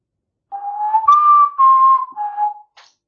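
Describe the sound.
A person whistles a short bird-call imitation as a clue to the Hunger Games heroine Katniss Everdeen: a few steady, clear tones around two seconds long, slightly wavering and changing pitch in steps, fairly loud, with no talking.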